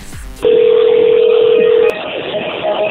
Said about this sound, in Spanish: Ahí va la llamada, se está marcando en este momento